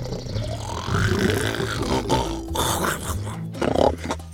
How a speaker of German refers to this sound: Seine letzte Mahlzeit lag schon ein paar Tage zurück und langsam bekam er wieder Hunger. Sein Magen knurrte.